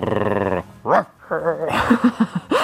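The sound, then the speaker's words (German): A person on all fours and wearing a mask imitates a puppy, starting with a buzzy, drawn-out throaty growl, then a series of short yelping whimpers and four quick little yips, fairly loud. “In dieser Folge werden wir deswegen für euch zu Hundewelpen auf allen Vieren mit Maske und auch knurrend.”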